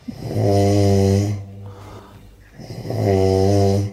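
Two long, loud snores from a woman's husband in Adelaide, with a deep, buzzing, horn-like drone like a ship's horn, separated by a quieter breathy inhale, with no talking.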